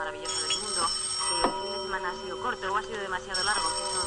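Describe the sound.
A telephone rings in a house with a steady, high electronic tone that holds throughout, while indistinct voices murmur underneath at a moderate level; a man picks it up.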